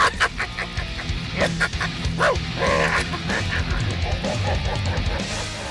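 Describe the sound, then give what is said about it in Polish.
A man with a sore throat imitates wolves with a continuous run of yelps, whines and growly barks, loud and rough throughout, with no other sounds behind it. “ma chore gardło, jest niezdrowy, odwołał dzisiaj audycję, a ty kazałeś mu udawać psy. Wilki. Wilki.”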